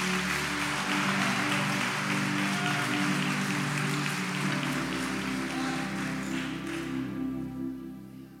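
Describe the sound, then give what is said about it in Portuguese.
An audience applauds Jesus during a sermon in a dense, steady wash of clapping for about seven seconds before it tapers off, with a low, sustained keyboard chord droning underneath throughout. “Se você crê assim, por favor, me ajuda a pregar e aplaude a Jesus nessa noite.”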